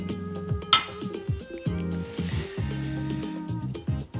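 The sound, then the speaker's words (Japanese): A single bright, sharp clink of glasses touching in a toast with shochu rings out near the start, over steady upbeat background music with no talking. “是非皆様もお好きな焼酎を用意していただき乾杯しましょうでは焼酎で乾杯”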